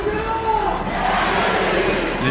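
A football crowd at Stade Gaston Petit roars with sustained cheering and chanting after Châteauroux score an equalising goal against Paris in a Coupe de France match. A dense wall of many voices with rising shouts and sung tones, loud and steady throughout.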